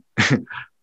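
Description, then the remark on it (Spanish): A single loud sneeze: a sharp explosive burst followed by a shorter, softer tail, with silence around it and no talking. “Salud.”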